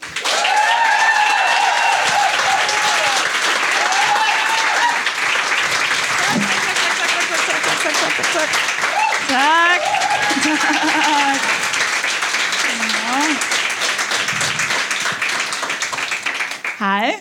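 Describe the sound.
Sustained applause from an audience welcoming the evening's guest, comedian Sofie Hagen, dense steady clapping lasting well over ten seconds, with cheers and a few voices calling out within it before it tapers at the end.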